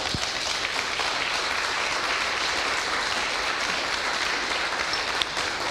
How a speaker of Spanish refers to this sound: Dale un aplauso a Dios.